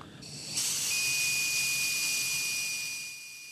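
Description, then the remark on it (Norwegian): A person blows a steady, breathy, medium-hard rush of air into a breathalyzer tube for about three seconds, joined by a thin, continuous high electronic tone from the device, then it fades as the breath ends. “Eh, så da puster du godt inn i røret, du er ikke sånn kjempehardt holder med sånn, si, mellomhardt. Og så, så da kan du bare blåse, det jo.”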